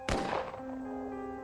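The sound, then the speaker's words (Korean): A single sharp gunshot cracks out, followed by a ringing, echoing tail that fades slowly with a lingering tonal hum. “한참 정리하고 있을 때쯤 총소리가 울려 퍼졌다.”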